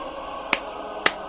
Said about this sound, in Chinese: 楚生拍了拍手，咬了一口手中的肉。